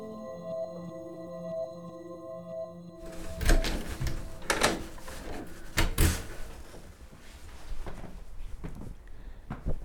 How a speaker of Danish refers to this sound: Så har jeg lige låst af til mit lille kælderhjem her i uh, øh, Torshavn.